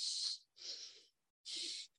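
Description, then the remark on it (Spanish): A voice imitates a mother breathing heavily on the phone like a bull: three forceful, hissy snorting exhalations in quick succession, fairly loud, with short silent gaps between them. “mi mamá ahorita marca y es como que le escuchas que está respirando como un toro de que...”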